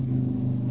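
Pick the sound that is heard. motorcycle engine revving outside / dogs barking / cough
motorcycle engine revving outside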